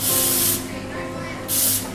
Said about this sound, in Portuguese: Ali é onde sai vapor de água quente.